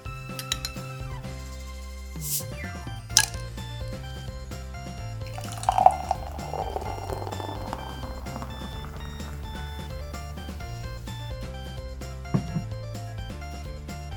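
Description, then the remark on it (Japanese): A bottle of Trappist beer, the Blue variety, is opened with a short crack, then the beer glugs and fizzes as it is poured into a glass, over steady background music with no talking. “それでは指名ブルー開けて飲んでいきましょう”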